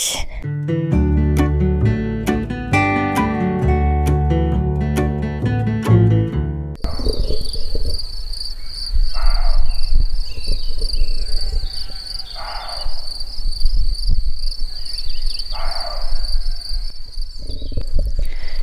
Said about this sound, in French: Il y a un chevreuil qui aboie. Je crois qu'il nous demande de partir.